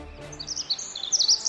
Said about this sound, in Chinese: 风儿妹妹吐出一阵清新的空气，太阳公公重新探出头来，小鸟儿也啼叫着。